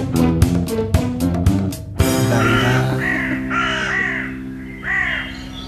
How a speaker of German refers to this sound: Soll ich einen Trenner ja, spielen?